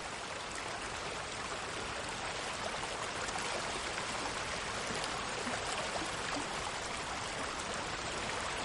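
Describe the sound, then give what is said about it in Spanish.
Shallow river water, with a fish trap sticking out of the surface, flows in a steady, even rush with a bright babbling hiss, unchanging in level across the whole stretch, with no voices. “En un río de poca profundidad, una trampa para peces sobresale de la superficie.”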